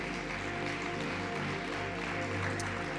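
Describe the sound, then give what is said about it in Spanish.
A church audience applauds Jesus during a sermon, a steady, dense wash of clapping that holds at an even level for a few seconds, with a low hum running underneath and no one speaking. “Dale un fuerte aplauso a Jesús si lo crees.”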